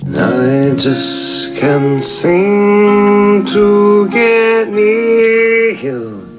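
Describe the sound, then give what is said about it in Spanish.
An acoustic song by a male artist from Florida, his voice singing long, sustained notes over soft accompaniment, steady and fairly loud throughout, with brief breathy consonants between phrases. “En este caso traemos algo en acústico.”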